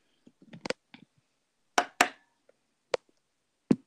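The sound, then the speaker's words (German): A red plastic Playmobil stadium seat is knocked on a table several times in an irregular rhythm, a few sharp loud raps mixed with lighter taps, with no talking. “Klopft er so leicht auf den Tisch mal irgendwie?”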